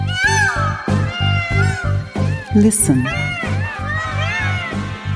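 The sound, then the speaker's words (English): Loud, wailing peacock calls rise and fall over and over, set against a steady thumping low beat, with a brief spoken word near the start. “This is the sound of the peacock.”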